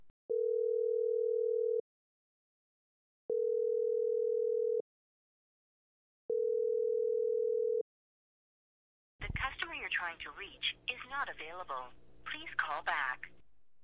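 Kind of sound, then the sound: signal or alarm, phone call ringing tone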